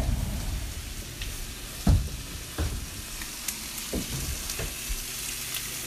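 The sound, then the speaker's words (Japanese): Steady, crackling sizzle of meat frying in a hot pan, with a few sharper pops and scrapes from stirring or turning, moderately loud, with no talking. “お肉はどれぐらい横が白くなったらまず裏返すおお横で見るんだ”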